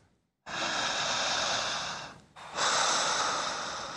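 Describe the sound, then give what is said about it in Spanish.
A deep, relaxed breath: a long, airy inhale lasting nearly two seconds, a brief pause, then a slow, full exhale. No one speaks. “Una respiración de descanso.”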